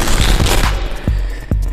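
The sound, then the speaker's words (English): A deck of cards being shuffled before a card reading: a dense, crackling riffle for well under a second, then two sharp taps as the cards are squared. No voices. “Let me get these cards shuffled up real quick.”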